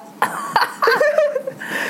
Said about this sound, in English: full disclaimer. I have a nasty cough from a cold and so I'm not.